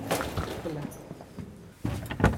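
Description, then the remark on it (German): A door leading from a church's organ gallery into its tower is handled and pushed open, with a couple of sharp clunks and a scraping creak near the end, while voices murmur. “Und dann machen wir die nächste Tür auf und gehen wir in den Turm ein.”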